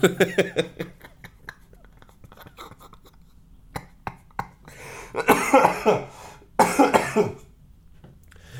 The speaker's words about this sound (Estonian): ja siis köhib samamoodi nagu mina jah, täpselt nii